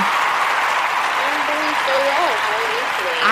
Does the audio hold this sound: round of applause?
yes